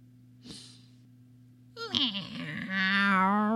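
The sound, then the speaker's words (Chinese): A short breathy puff, then a voice imitating a cat's meow: a drawn-out, tonal cry that bends in pitch and grows louder toward the end, over a steady low hum. “喵！我是亲切的老猫，你愿意靠近我吗？”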